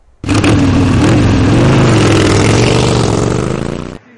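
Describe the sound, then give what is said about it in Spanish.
A Triumph Bonneville T100 motorcycle engine fires up abruptly and revs loudly, its pitch rising and falling steadily for about four seconds before cutting off, with no voices. “Es la Triumph Bonneville T100 Bad Ekins.”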